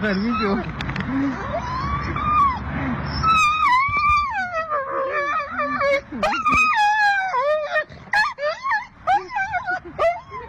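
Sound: dog howling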